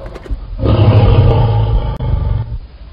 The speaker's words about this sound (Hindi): तभी शिवाजी ने सिंह की आवाज में तेज हुंकार भरी